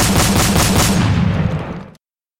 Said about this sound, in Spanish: Ambos son sorprendidos por un hombre parado en la sombra que dice Señor Lennon. El hombre tiene una pistola y haciendo una postura militar le dispara cinco tiros con su arma del calibre 38.